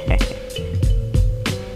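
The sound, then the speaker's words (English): Several heavy, thudding knocks on a door, about five in loose irregular succession, landing over a steady low hum with no one speaking. “Yeah, that should be him right right there knocking on the door”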